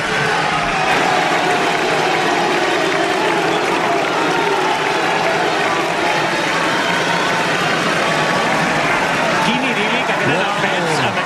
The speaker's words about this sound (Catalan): Quines bèsties, quines bèsties de fer castells. Escoltem com ho aplaudeix la plaça.